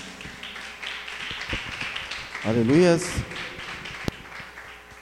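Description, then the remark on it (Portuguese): An audience claps steadily in praise to the Lord Jesus throughout, a dense patter of many hands, with voices calling out over it and one loud, drawn-out shout rising briefly in the middle. “As palmas louvas, Senhor Jesus.”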